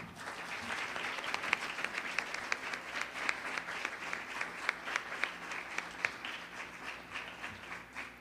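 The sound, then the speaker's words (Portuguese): A church audience at a worship service claps for Jesus steadily for the whole stretch, many hands producing a dense, continuous applause with sharp individual claps popping out, sounding like a large gathering. “Aplauda Jesus, querido.”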